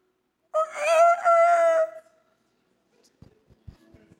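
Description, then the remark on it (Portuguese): A person imitates a rooster's cock-a-doodle-doo in one loud, drawn-out crow with a brief break in the middle, followed by a pause and a few faint soft knocks. “É o melhor galo que eu podia fazer.”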